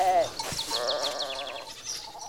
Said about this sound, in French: Et là, on entend donc euh, les petites biquettes qui sont là-bas.